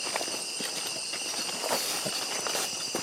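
Steady footsteps crunch through dry leaves at an even walking pace, while a constant high chirring of crickets fills the background throughout. No one speaks.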